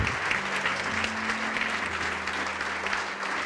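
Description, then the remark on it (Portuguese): An audience applauds steadily to the Lord Jesus as people come forward to the front, a dense, sustained wash of clapping from many hands, with a low instrumental hum underneath and no clear voices. “E vamos aplaudir ao Senhor Jesus por cada vida que está chegando.”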